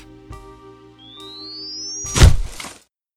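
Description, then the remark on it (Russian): A defibrillator charges with a thin, rising electronic whine, then delivers a shock after adrenaline and a call to stand clear, discharging in a sharp, loud thump with a brief crackling burst, over a steady low equipment hum and a couple of faint clicks. “Адреналин, дефибриллятор. Отошли. Разряд.”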